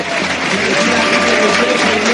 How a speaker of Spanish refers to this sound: Y ahora mismo Quique Raus también se retira por parte del Barbastro. Escuchamos los aplausos del estadio